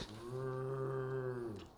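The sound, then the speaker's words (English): A single drawn-out, low moo held steady for over a second, made by a human voice imitating a cow, clear with no other talk. “Why are they doing cattle impressions, Dusty?”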